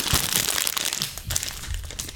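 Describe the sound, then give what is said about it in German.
A plastic bag of Russisch Brot biscuits crinkles and rustles as it is handled and opened, a continuous dense crackling with a few heavier crunches, with no talking. “Und ich habe eine Tüte russisch Brot mitgebracht.”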